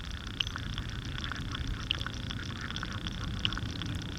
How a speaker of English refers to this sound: so you'll probably be hearing these lawnmowers in the background throughout the rest of the summer.